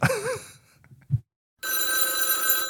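A telephone rings loudly for a call, a sustained metallic bell ring that starts after a short warbling tone and a brief pause, with no one talking.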